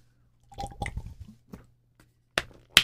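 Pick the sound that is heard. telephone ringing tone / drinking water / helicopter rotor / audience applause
drinking water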